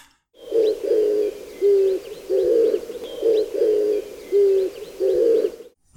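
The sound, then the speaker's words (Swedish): A dove gives a low, hoarse cooing call, repeated in two matching phrases of four rhythmic coos each, clear with no other sounds. “om man lyssnar på östliga fåglar till exempel så kan vissa ha Eh, rösten är ju ofta densamma, den här lite dova, hesa.”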